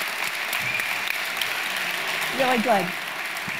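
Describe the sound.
An audience gives sustained applause to thank the speaker after a seminar talk, a steady dense clatter of many hands clapping, with a brief spoken remark rising above it near the end.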